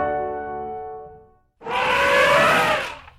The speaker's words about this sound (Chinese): 哇，这是大象的声音，乖乖。